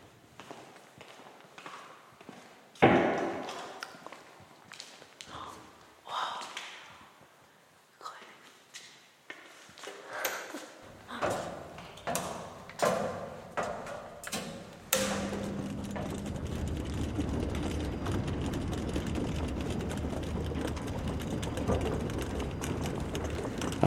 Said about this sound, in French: Alors là, vous avez une réverbe particulière, parce que la coupole est là aussi sphérique. Vous êtes trop bas pour être au niveau de l'acoustique, mais vous entendez quand même cette réverbération du son.